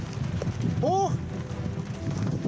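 Thunderstorm wind buffets steadily with a dense, rushing roar of wind and rain throughout, as probes are fastened to weather balloons for launch, broken midway by a brief, high, wavering tonal cry that rises and falls.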